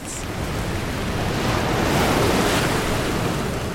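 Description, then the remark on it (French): Heavy storm waves crash and roar continuously on the open sea at the Juan Fernández archipelago, 600 km off the coast of Chile, during a violent storm: a dense, loud wash of surf with gusting wind noise and no voices. “À 600 km des côtes du Chili, une violente tempête secoue les flots de l'archipel Juan Fernandez.”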